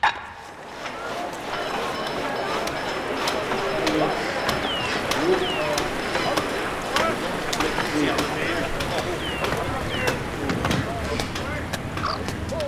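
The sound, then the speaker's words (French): A bustling reconstructed 18th-century soundscape of the Grand Châtelet quarter riverside in Paris: a steady murmur of many voices, dogs barking now and then, birds such as sparrows chirping, and sharp wooden knocks and chopping sounds scattered throughout, all blended into a dense ambience. “elle a reconstitué l’ambiance sonore du quartier du Grand Châtelet”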